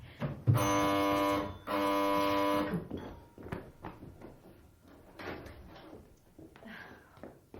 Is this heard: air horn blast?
no